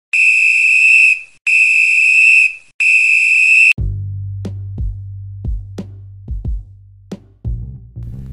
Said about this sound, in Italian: E bentornati dopo il triplice fischio,